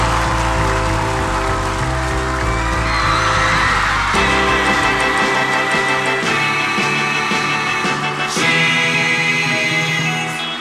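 A crowd cheers and whoops with scattered applause, woven into loud band music with steady bass notes and sustained chords, and the noise swells and falls throughout.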